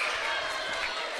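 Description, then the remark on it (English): The Bellevue student section cheers at a basketball game during a free throw, a steady, dense roar of many voices that holds at an even level for about a second, with no single speaker standing out. “Bellevue student section likes that a lot.”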